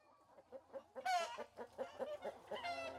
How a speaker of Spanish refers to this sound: Cerca la carretera, saltan y deambulan algunas gallinas. Los primeros cantos de la mañana se escuchan en el interior de la casa.